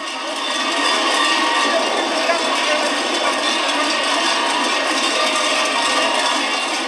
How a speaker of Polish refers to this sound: Słychać gwar. Słyszycie?